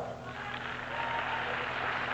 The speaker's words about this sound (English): Now, ladies, clap for yourself.